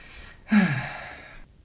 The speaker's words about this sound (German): Gesundheit. Puh. Puh. Also der musste jetzt aber auch raus.